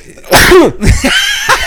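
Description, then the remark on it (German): A loud sneeze onto a microphone bursts out with a sharp explosive rush, followed by a shorter second burst and a trailing breathy sniff, with no talking. “Gesundheit.”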